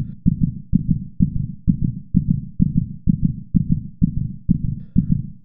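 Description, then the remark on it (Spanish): A person's fast, steady heartbeat after a fright thumps low and muffled, about a dozen beats in quick even rhythm with no voices, like a pounding pulse. “Me he quedado, yo es que tengo el corazón todavía, mira, escucha, escucha.”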